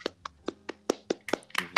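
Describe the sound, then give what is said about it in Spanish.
A short burst of hand clapping for a guest, about ten sharp claps in a quick, steady rhythm that grows slightly busier toward the end, with no voices. “Un aplauso, por favor.”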